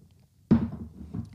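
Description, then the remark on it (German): A muffled gulp as someone swallows a mouthful, a soft low thump followed by a quieter second swallow sound in an otherwise quiet moment. “muss erstmal runterschlucken.”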